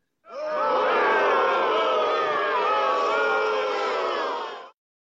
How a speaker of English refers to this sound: Boo on the host. Where where's the boo button? Where's the boo button?